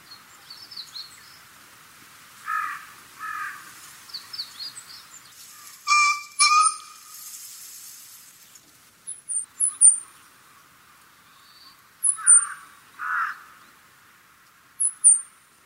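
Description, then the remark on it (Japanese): A green pheasant gives loud, harsh two-note calls, repeated several times in pairs, while thin high chirps from other birds sound intermittently in the background. “体が大きいだけに鳴き声も大きく開けた静かなところならば 1km 以上遠くまで聞こえますただ鳴き声と同時に翼を体に打ちつけて低い音を出しています”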